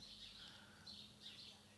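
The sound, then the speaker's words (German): Birds chirp in a garden, a few high tweets recurring every half second or so over a low, steady background hum. “Ich sitze hier wieder im Alama Pyjama Garten, also falls ihr die Vögel zwitschern hört”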